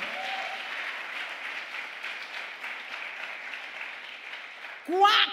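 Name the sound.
audience applauding loudly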